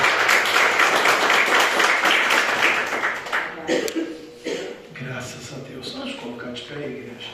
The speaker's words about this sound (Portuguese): Essa é a palavra que o Senhor colocou no meu coração e as palmas que glorificam o nome do Senhor Jesus nessa noite.